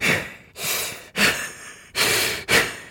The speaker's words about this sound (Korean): 아, 근데 아, 이 숨소리 듣는 거 참 좋은 건데. 왜냐면 우리가 저 스킨 스쿠버, 스쿠버 다이빙 하러 가면 이제 네. 숨소리만 들리잖아요. 제 숨소리만. 그 숨소리만 집중해서 듣는 게 정말 진짜로 사실은 되게 힐링이 되거든요.